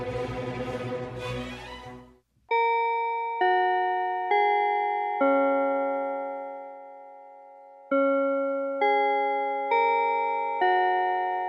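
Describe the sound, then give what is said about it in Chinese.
A melodic bell chime rings out in two phrases of four clear, sustained tones each, ringing and decaying between strikes, following a brief burst of noisy sound at the start. “那钟声过后，开始今天的科技早自习喽。”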